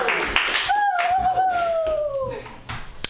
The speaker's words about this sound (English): Keep clapping your hands together